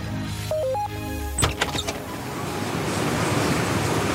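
A classic printing press at Koninklijke van der Most, the largest envelope printing company in the Netherlands, in Heerden just below Zwolle, starts with a few sharp mechanical clacks, then settles into a steady, loud rushing machine drone. Nobody speaks.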